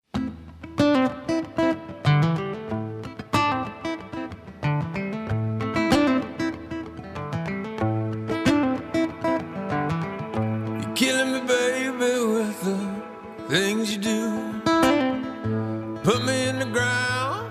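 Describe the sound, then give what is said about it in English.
A late-eighties-style post-outlaw country pop duet plays loud, with a full band, a steady driving beat and bright, ringing instrumental lines throughout, with no one talking over it. “which sounds kind of like this like late 80s, early 90s like post outlaw country country pop song.”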